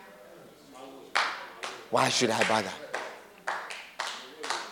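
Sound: weak audience clapping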